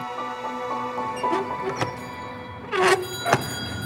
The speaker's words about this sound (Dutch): grote, stevige deur.